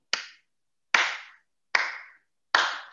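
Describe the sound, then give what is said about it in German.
Four slow, evenly spaced hand claps, each a sharp bright smack with a short decay, spaced about eight-tenths of a second apart in otherwise silent air, giving a deliberate, ironic, disparaging, disappointed rhythm. “so dieses ironischste, abwertendste, enttäuschendste Klatschen, was du dir vorstellen kannst.”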